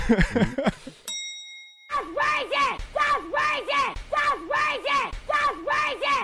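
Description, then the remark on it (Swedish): A voice screams loudly in a song, in repeated rising-and-falling bursts roughly once a second, after a brief bright ding that rings out over a moment of near silence. “Någon som verkligen skriker”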